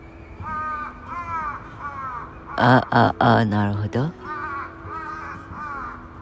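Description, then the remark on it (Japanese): A crow caws repeatedly in steady, rasping calls, breaking into a louder, harsher burst of cawing midway before settling back to softer caws, with a person speaking briefly alongside. “ねえカラス君も”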